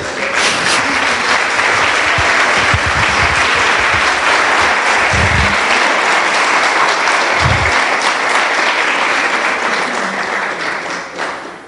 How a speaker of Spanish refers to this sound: Alguien le puede dar un aplauso al rey.